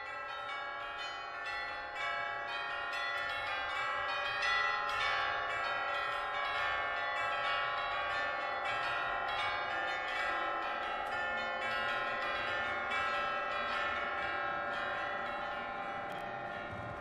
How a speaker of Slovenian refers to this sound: Deset zvonov sem uporabil v kompoziciji, tako da sem eh, tokalistom zaupal igranje na osem cenotih zvonov, stanjenih v orkestru in pa še plus dva zraven, dva prava zvonova